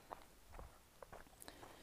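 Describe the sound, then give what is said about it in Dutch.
Brisk footsteps tap along in a quick, slightly uneven rhythm, each step a short muffled thud, fairly quiet, with no one speaking. “Ik ben even wat te hard aan het lopen.”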